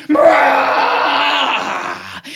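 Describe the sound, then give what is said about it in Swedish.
A loud, harsh roar, apparently a human voice imitating a monster presented as Bigfoot, heard while camping in a tent in the forest, sustained for about two seconds before cutting off abruptly. “Sen hör du ett fruktansvärt vrål.”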